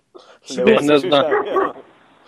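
A dog barks in a short, loud flurry of yelps lasting about a second, then fades into quiet background noise.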